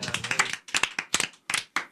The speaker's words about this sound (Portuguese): Uma salva de palmas para todo mundo aqui.